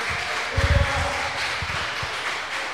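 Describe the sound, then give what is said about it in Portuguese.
An audience claps to applaud the Lord, a broad wash of applause with a denser burst of hand claps early on, then scattered louder claps sounding through the steady noise. “Aplauda ao Senhor.”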